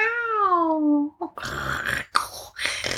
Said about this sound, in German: Miau, sagt die Katze Miatze und hüpft vom Baum herunter